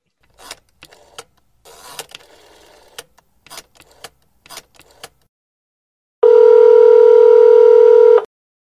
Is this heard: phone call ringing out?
yes